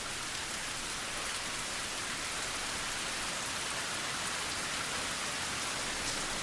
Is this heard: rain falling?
yes